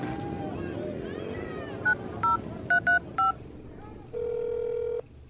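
Several short telephone keypad beeps sound one after another at an uneven pace as someone dials the police while hiding behind the bins in a building's garbage room, followed by a longer steady tone, all over a constant rumbling, windy background.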